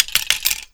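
A metal spoon lure clinks and rattles against an ice-fishing rod as it is shaken, a quick series of bright taps, about four sharp jingles over a brief moment with no talking.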